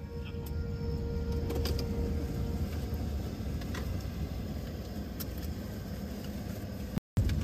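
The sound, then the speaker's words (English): A truck stopped by deputies about 20 blocks from a school campus in the morning idles with a steady, low rumble that stays constant throughout, unbroken except for a brief cutout near the end; no one speaks. “Deputies stop a truck 20 blocks from the school campus in the morning as children are walking to school.”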